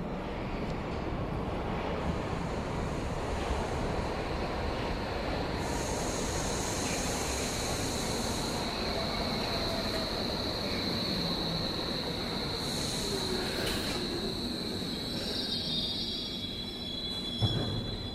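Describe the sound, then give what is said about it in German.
Railway tracks in a transit station hall hiss and whoosh steadily, recorded with the microphone aimed at the tracks, a high metallic singing tone rising as a train approaches and rolls past, wheels squealing, the rumble continuous throughout with no voices. “Der Sound der Schienen zuerst säuselnd. Ich richte das Mikrofon auf die Gleise.”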